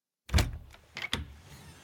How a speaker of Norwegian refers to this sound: Men akkurat idet trollet skal til å snu seg bort fra hytta, smeller den ene døra til skapet opp.